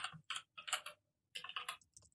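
The keys of a Keychron mechanical keyboard with brown switches clack in quick bursts of typing, pause for a moment, then resume with another flurry of clicks; fairly quiet, with no voices.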